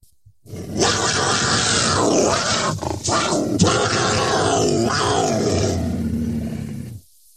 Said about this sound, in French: C'est quand même un comble lorsqu'on sait qu'un cougar en colère, ça ressemble à ça.